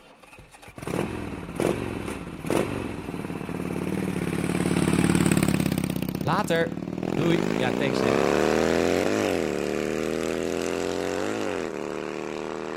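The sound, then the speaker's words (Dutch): A motorcycle engine cranks and fires up, then settles into a loud, rumbling idle of about 100 decibels with a few throttle revs. Brief speech is heard at the start. “Nou, dit geluid, eh, dit is dus een, eh, een, startende motor. Dat is dus ongeveer 100 decibel.”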